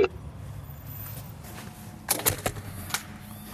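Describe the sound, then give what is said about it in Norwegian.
Prison keys on a chain jangle in a few short, bright metallic bursts, clustered together and then one last clink, over a low, steady background rumble with no one talking, in the closed ward of Tromsø prison, Norway. “Skal nøkler, lenke, samband og eh, voldsøl og, alarm.”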